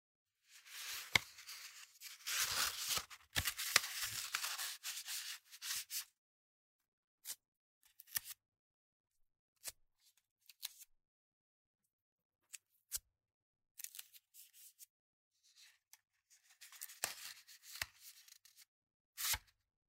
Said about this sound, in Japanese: 紙を丸めて、両端と真ん中をテープで留める。